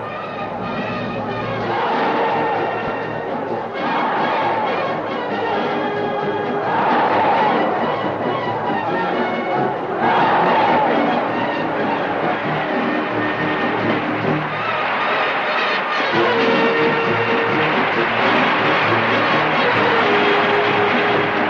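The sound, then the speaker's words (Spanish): A bullring crowd at a bullfight applauds and cheers the new matador, a continuous roar blending into a dense, loud wash of noise that swells in waves and never drops away across the whole stretch. “El público no deja ni un segundo de aplaudir y vitorear al nuevo matador.”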